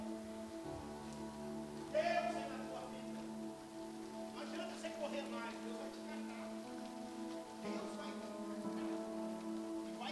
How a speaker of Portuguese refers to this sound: Ó a chuva aí, não tem como você ir embora não. Vai ter que ouvir a palavra, hein? Deus mandou a chuva para segurar você aí.